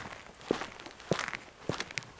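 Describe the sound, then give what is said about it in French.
Footsteps of a policeman approaching a car pulled over at the roadside, one hand on his pistol: three or four evenly paced steps about half a second apart, each a sharp scuff, with no talking and a faint background hiss. “Le policier s'approche comme un crabe avec une main sur le pistolet.”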